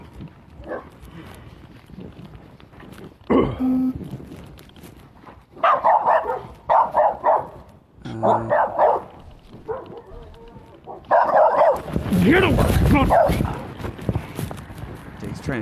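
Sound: dog barking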